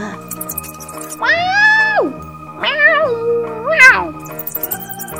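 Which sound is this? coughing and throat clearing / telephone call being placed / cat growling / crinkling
cat growling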